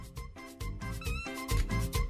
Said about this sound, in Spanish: Esos sonidos con un globo. Una maravilla.